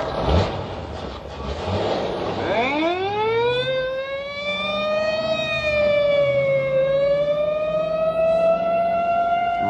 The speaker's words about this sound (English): Or in a screaming squad car.